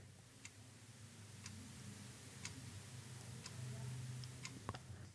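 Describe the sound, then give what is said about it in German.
A grandfather clock from around the 1950s or 60s, made of wood and a gold-imitating metal, ticks steadily, one tick about every second, clear over a low room hum, with a faint extra click near the end. “Diese Uhr ist eine Standuhr, die habe ich geerbt.”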